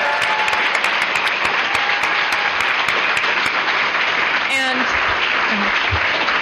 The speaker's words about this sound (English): I think that about wraps it up. Let's give a big round of applause for Naomi Novik for joining us.